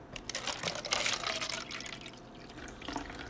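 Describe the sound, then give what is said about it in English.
Water pours steadily into a glass, a bright continuous splashing and trickling that swells near the start and fades slightly, with no voices. “But no, um, I am pouring myself something to drink though because the way this cold is acting”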